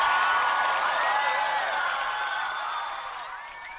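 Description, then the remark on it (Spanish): A crowd applauds steadily, with cheers and high whistles rising above the clapping, the whole sound slowly fading toward the end. “Y si es posible también, este aplauso dominical lo extenderemos a otra buena noticia que nos espere la semana que el domingo comenzamos.”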